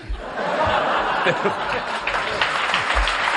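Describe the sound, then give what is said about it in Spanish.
An audience applauds steadily for a few seconds after a joke about the French, dense clapping mixed with scattered laughter and a voice or two underneath, loud throughout. “No aplaudáis, no aplaudáis chistes de franceses.”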